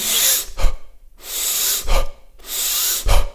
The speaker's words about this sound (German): Durch die Nase einatmen, durch den Mund fallen lassen und das Ganze mit einem schnellen Tempo.